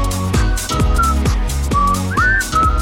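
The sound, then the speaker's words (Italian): A person tries and fails to whistle along to a song: thin, wavering whistled notes come and go in short, faltering bursts over a loud music track with a steady beat, one note sliding upward, partly buried beneath the music. “Fischiala, fischiala.”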